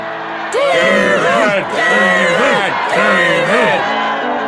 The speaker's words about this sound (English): David heard cheering.